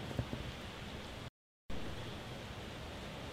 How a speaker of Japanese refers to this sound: 今日ごめんなさいね雨がすごい降ってるんで雑音が入ってますけど